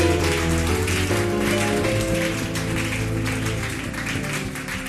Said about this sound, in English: I thought you were clapping for the Lord.